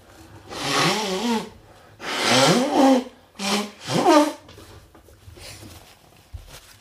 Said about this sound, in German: Ich muss mir wieder die Nase putzen. Ich werde wahnsinnig.